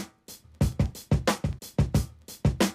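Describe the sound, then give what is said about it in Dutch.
A simple acoustic drum beat, played by a drummer as an example of a basic beat, plays on its own, steady hits with sharp attacks and a full low-to-high ring, roughly a dozen strikes in a brisk rhythm with no voices. “Nou, vroeger bestond de beat uit een, uh, een gewoon een, een drums, zeg maar. En dat, dat klinkt zo.”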